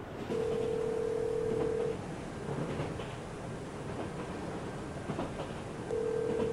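An outgoing phone call, made by someone sitting on a delayed train, rings: a steady ringback tone sounds twice, long tones separated by a few seconds of pause, over a constant rumbling background noise with no one speaking.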